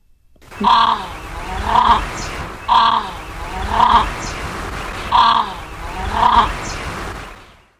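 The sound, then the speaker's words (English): An Australasian crested grebe (pūteketeke) gives loud, harsh, nasal calls, six of them arriving in uneven pairs over a steady rushing background, with no voices. “let's let's hear them first. We'll start with the the Puteke Teke.”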